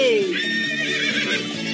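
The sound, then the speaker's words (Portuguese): A horse neighs loudly, a whinny that starts high and slides downward before breaking into quivering, shaky tones lasting under two seconds. “Pega o cavalo.”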